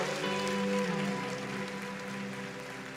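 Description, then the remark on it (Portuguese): A large crowd applauds for Jesus in a dense, continuous wash of clapping that tapers slightly toward the end, with a steady low musical tone sustained underneath. “E se você acredita nisso, dá um glória a Deus bem forte, bate uma salva de palmas para Jesus.”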